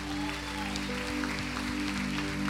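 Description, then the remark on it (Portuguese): Audience applause, a dense, steady patter of many hands clapping at an even level throughout, with a sustained low tone humming underneath. “Será que a gente pode aplaudi-lo mais uma vez?”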